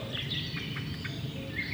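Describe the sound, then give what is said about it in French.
Forest birdsong: short, bright chirps and whistles from several birds (blackbird, common cuckoo, song thrush, robin, tit, nuthatch and wood pigeon) scattered over a steady low ambient rumble, with no one speaking. “Pas d'espèces d'oiseaux très très rares. Merle noir, coucou gris, grille musicienne, rouge-gorge, mésange, citelle une Harmonie, Pigeon Ramier.”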